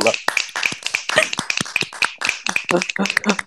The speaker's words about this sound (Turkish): Alkış kocaman. Bravo.